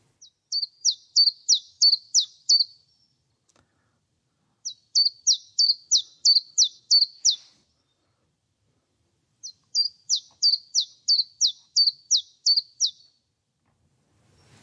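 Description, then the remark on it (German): A common chiffchaff sings three bursts of clear, high notes, each a quick even series of two alternating syllables like 'zip, zip', separated by short pauses, with no voices present. “Und ich spiele ihn einmal ab und ihr werdet sehen, das ist immer so zwei Silben im Wechsel, immer so zip, zip, zip, zip.”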